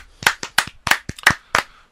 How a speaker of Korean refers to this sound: 자 그리고 플스 쪽 마지막 뉴스인데 소니에서 플레이스테이션 4 전 세계 판매량 4천만 대 돌파했다고 발표했습니다. 야. 네. 어, 이건 박수. 박수.